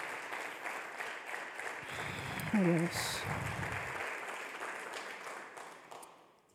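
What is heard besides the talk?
audience applauding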